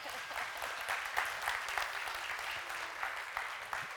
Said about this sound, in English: So this is like her one year anniversary. So you, yeah, you can clap for that.